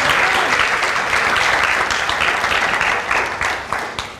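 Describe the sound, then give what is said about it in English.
A church audience breaks into loud, sustained applause for the sound team, a dense wash of many hands clapping that holds steady for several seconds before beginning to taper off at the end. “to give them a big round of applause.”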